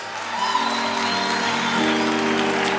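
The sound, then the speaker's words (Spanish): An audience applauding steadily, a dense, sustained wash of clapping with a few faint cheers mixed in, holding at a fairly loud level throughout. “Yo no sé cuál es ese aplauso de ustedes.”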